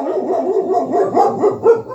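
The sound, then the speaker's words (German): A dog barks continuously, a run of loud, overlapping yelps and barks rising and falling in pitch, with no one speaking. “Da musst du nämlich dauernd Hunde aus dem Podcast rausschneiden.”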